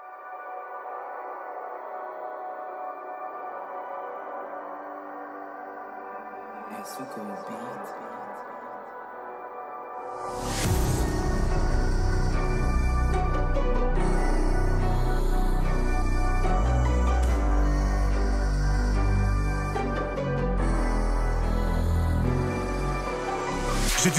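A drill rap track opens with a sustained, eerie melodic line for about ten seconds before booming sub-bass and hard drums crash in, loud and upfront, with no vocals yet.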